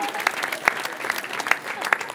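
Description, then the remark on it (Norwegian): Audience cheering and applause for a boy who drank a smoothie for his team: a dense, steady wash of clapping with brief whoops and sharp accents popping out over the continuous crowd noise. “Skal du få en jubel til?”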